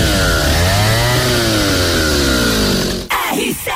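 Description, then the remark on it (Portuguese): A Steel chainsaw runs loudly with a steady buzzing engine whine that dips and rises slightly in pitch, then cuts off abruptly after about three seconds. “O Motosserra mais completo da Steel te proporciona leveza, potência e agilidade para o seu trabalho”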